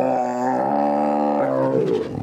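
A single loud, sustained dinosaur roar rings out alone, starting as a deep harmonic bellow and breaking into a rough, rasping growl as it fades.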